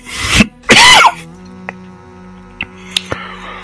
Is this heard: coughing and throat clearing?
yes